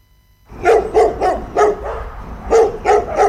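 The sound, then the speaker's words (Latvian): Several dogs bark in quick, uneven bursts, loud, at an animal shelter in Jugla, Riga, Latvia, with a crowded, echoing feel and no one talking. “Rīgā juglā, un šeit nonāk kaķi un suņi no visas Latvijas un dzīvo patversmē tīri tik ilgi, kamēr tiem tiek atrasti jauni un gādīgi saimnieki.”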